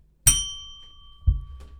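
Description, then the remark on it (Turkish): A bright starting bell is struck once and its clear metallic tone rings on, fading slowly, with a second duller knock about a second later. No one speaks. “Evet başlangıç zilini, zili sesini duydunuz.”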